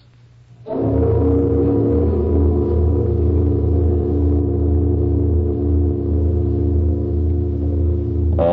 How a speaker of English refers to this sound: The bell's lips inscribed with Buddhist texts from the sacred Fa Hua King, from the chapters of the holy Lin Yen King. Hear the great bell responding. How mighty her voice, though tongueless.